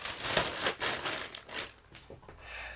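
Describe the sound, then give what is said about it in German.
Crinkling of the original plastic bag of a packaged item, a run of dry, crackly rustles in irregular bursts that grow sparser and softer toward the end, with no voices. “Ach, äh, dieses hier ist noch original mit Tüte”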